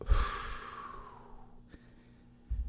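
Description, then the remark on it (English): Fairly quiet: a scratchy lighter strike as a cigarette is lit, with a soft hissing rush of breath that fades over a second or so, then a single sharp click, with no talking. “You get to hear me light a cigarette.”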